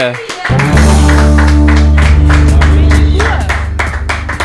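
Steady, rhythmic hand claps ring out close and loud over sustained low musical tones, with no voices, lasting a few seconds like a short burst of celebratory applause.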